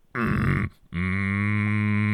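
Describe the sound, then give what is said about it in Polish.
Low, closed-mouth humming as a vocal warm-up: a short hum, a brief pause, then a longer steady one held at an even low pitch, with no words. “tak, murmurando takie. Mm. Mruczando.”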